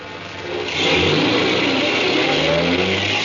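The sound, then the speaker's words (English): A taxi cab engine revs up and accelerates as the cab drives off, its loud mid-pitched roar swelling after a brief rumble and holding steady, with no voices. “I could hear the cops running down the stairs as I ran out through the door and jumped into a cab and got out of there.”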